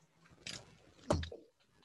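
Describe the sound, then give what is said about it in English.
Someone takes a quiet sip of tea, with a soft slurp followed by a gulping swallow and faint mouth noises, and no talking. “excuse me, I had to get a sip of uh, had to get a sip of some tea.”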